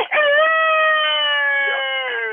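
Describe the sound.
An imitated high-pitched female coyote lone howl, used as a lead-off call to coyotes: a single loud, sustained tone that holds steady for over two seconds and slowly sags in pitch toward the end, with no talking.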